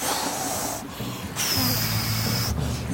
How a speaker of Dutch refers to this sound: Water over de rand van de boot en de golf slaat zo over ze heen en beukt op ze neer.